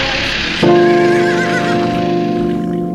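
A horse neighs loudly, a sustained whinny that starts abruptly and trails off over a few seconds, with no voices present.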